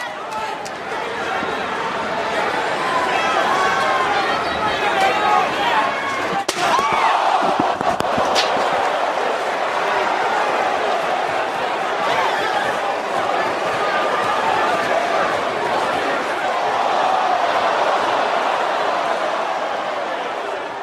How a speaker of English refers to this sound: You guys just heard that chair shot that Joe Drilling and I talked about.